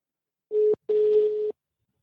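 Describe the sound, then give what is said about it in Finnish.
A steady electronic telephone tone sounds twice, a short beep followed by a longer one, a ringback signal while an outgoing call is being placed. The tones are clear and alone, with no talking. “Mm, mutta laitetaanpa tästä soittaan ja katsotaan, katsotaan mitä nyt tapahtuu.”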